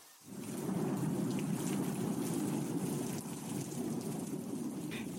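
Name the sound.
rain shower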